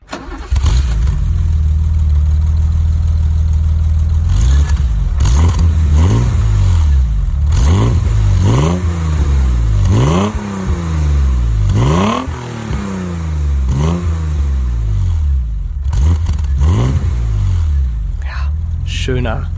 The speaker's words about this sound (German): Rein Sechszylinder. Klassisch, würde ich sagen. Klassischer Sound. Und es handelt sich um den BMW 333i. Der Baureihe E30.